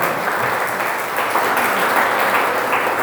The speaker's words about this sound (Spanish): Denle un aplauso, por favor, al Señor esta mañana.